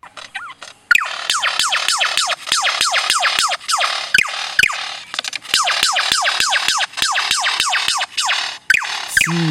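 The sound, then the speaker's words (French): A lyrebird, a songbird of eastern Australia, mimics a laser gun, firing rapid, steady strings of sharp descending electronic 'pew' zaps, loud, with a brief pause midway and no talking. “ce qu'on entend là, c'est l'oiseau lyre, un oiseau chanteur à l'est de l'Australie, en train d'imiter un son qui, un peu être- qui semble être un peu entre le laser et le pistolet.”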